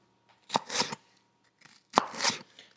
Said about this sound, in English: Now I am chopping up peppers. These are hatch chilies, actually, and I am popping them in the dehydrator